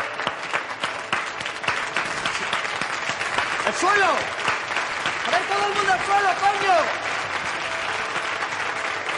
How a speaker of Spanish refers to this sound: Mercedes mira a Río desafiante. Una señora se levanta y aplaude. Otros rehenes siguen su ejemplo.